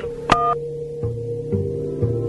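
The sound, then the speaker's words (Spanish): A click followed by one short electronic beep from a telephone keypad as 1 is pressed to accept a call from a prison, clear, then a steady low phone-line hum that shifts slightly in pitch a few times. “Si acepta la llamada, marque 1.”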